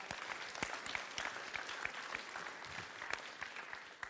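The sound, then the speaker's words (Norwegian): An audience claps steadily for about four seconds, a dense wash of many hands with sharper individual claps popping out, fairly loud and sustained without any voices over it. “Ja, den kan du gi en klapp på, det syns jeg.”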